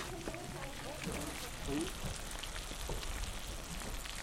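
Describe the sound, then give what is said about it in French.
Duck sizzles steadily in a hot pan, a dense, even crackle and hiss that fills the whole stretch, with a faint voice murmuring briefly underneath. “Bon, alors voilà, le canard est en train de pétiller.”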